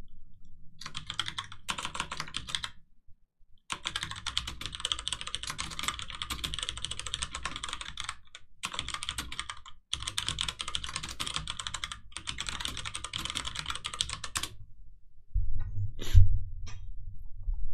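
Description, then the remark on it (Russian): Rapid, clacky typing on a Das Keyboard mechanical keyboard, crisp, comes in several long bursts separated by brief pauses, with a low thump near the end and no voices. “Итак, у меня э, механика клава, надо книгу писать, да?”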